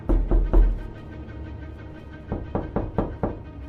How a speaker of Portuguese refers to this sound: Vi se erguer em meio às árvores uma casa branca de dois andares, com uma bela varanda. Uma caixa de correio com o nome Wilmart me deu a certeza que eu precisava para bater na porta.